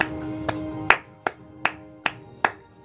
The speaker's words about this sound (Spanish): Por eso este aplauso, te lo mereces.